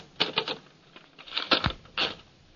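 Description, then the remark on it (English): Typewriter keys clatter as a woman types a dictated letter at gunpoint: quick, uneven bursts, sharp mechanical clacks with a few heavier thumps mixed in, moderately loud and with no voices over them. “You type what I say or else. Type it.”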